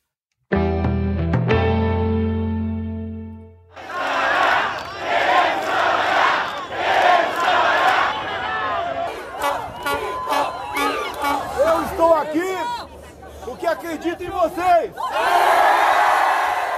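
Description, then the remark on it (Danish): A short sustained musical chord gives way to a large rally crowd in Brazil, at a weekend demonstration by President Bolsonaro against the country's governors, roaring and cheering loudly, with individual shouts and whoops rising and falling over the continuous noise. “Jeg er her, fordi jeg tror på jer. Og så jubler de.”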